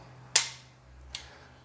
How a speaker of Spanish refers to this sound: Vamos a accionarla. Ahí ya se produciría una detonación del cartucho. También la podemos accionar con el martillo en esta posición.